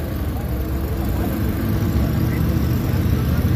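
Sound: tractor engine running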